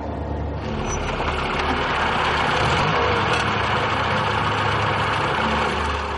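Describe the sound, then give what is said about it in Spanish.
A car engine idles steadily and fairly loudly, with a constant low rumble and a broad hiss layered on top, running continuously with no voices, its headlights lighting the path to an isolated farm. “Los faros del coche iluminan el camino.”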